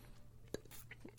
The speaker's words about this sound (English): So that sound was me bashing the glass into my teeth. Yeah, that's not a good way to drink it.